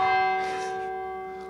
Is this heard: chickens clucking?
no